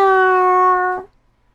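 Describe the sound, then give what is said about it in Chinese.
A human voice imitates a cat's meow, one sustained, tonal "meow" that holds steady for about a second, then drops and cuts off, leaving silence. “可猫却说：“ 喵，”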